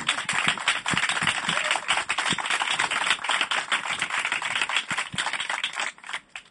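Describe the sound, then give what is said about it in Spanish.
A crowd applauds the guests of a radio programme held on a rooftop, dense overlapping claps forming a steady, crackling roar that holds for several seconds before thinning slightly near the end. No one speaks. “Eh, y por supuesto que este aplauso incipiente es vuestro.”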